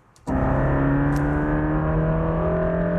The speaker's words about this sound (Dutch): de Mercedes AMG GT Black Series van tuner Absolute Motors op pad ging. Dit is het resultaat.